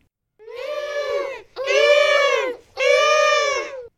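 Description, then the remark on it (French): Three long, wailing seagull cries in quick succession, each a loud, harsh, drawn-out call, with no voices. “Des mouettes Je pense qu'il s'agit d'alcyon.”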